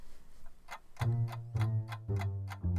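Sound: clock ticking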